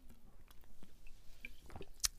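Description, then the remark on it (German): Quiet wet mouth sounds of someone sipping water from a sparkling-wine bottle: small slurps and gulps over a couple of seconds, ending in a sharper click or swallow. “So, und ich ähm, ja, trinke jetzt einen Schluck Wasser auf ein Jahr.”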